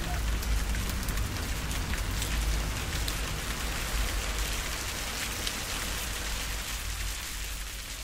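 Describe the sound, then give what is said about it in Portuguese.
Steady rain falling, a dense even hiss with scattered pattering drops on a surface, fairly loud throughout with no voices. “É, o som da maré, a chuva, cachorro latindo, pode ser.”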